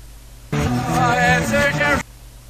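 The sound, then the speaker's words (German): A short passage of a rock song played in reverse, said to sound like 'I am Satan', a dense blend of voice-like harmonics and instruments with an unnatural, swelling quality, lasting about one and a half seconds and then cutting off abruptly. “Spielt man das Ganze jetzt rückwärts, klingt das so.”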